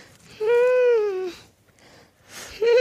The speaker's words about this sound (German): Hörst du die ganze Zeit den Hund fiepen? Übrigens, der große Dalmatinerhund steht hier und macht die ganze Zeit.